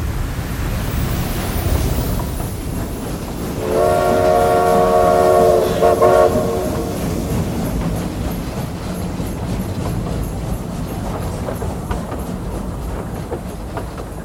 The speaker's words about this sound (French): le train Transmerveilleux Express numéro 251 232 à destination inconnue va entrer en gare. Éloignez-vous de la bordure du quai, s'il vous plaît.